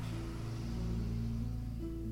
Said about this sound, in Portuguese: Mesmo quando o caminhão passa. Não, pode deixar aberto, só se, só se incomoda vocês o, o barulho da rua.